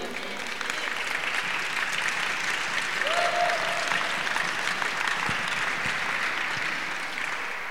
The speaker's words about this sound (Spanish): Regálale un aplauso al Señor.